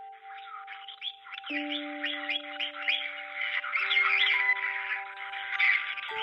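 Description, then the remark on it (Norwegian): A parrot in a bird shop squawks and chirps in a steady, busy stream of harsh calls, over faint sustained humming tones in the background. “Han lærer papegøyen å svare telefonen og si hei til kundene.”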